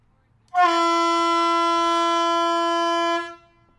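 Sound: ship's horn blast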